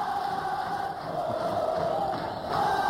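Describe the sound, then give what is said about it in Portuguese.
A large crowd of Vasco football fans roars and chants continuously, a dense, steady wall of massed voices that swells slightly louder toward the end, with no single voice standing out. “torcida do Vasco fazendo festa.”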